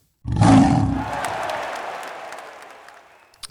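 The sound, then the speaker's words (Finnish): A single loud lion roar bursts out with a deep, rumbling growl, then fades into a long, breathy tail over a few seconds. No voices accompany it. “Kaksi leijonaa.”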